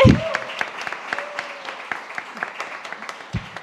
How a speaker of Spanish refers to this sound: así que aplauso más fuerte.